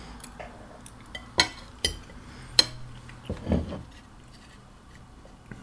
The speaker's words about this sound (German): wenn es scheppert, ist es der Teller.